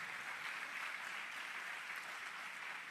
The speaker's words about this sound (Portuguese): Pode aplaudir, essa igreja vai rodar gostoso.